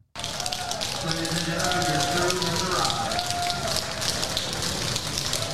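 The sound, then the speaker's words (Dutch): Passengers cheer and clap enthusiastically as their United pilot and crew arrive and are announced, a steady dense wash of applause with whoops and raised voices running through it for several seconds. “En dan is iedereen natuurlijk laaiend enthousiast.”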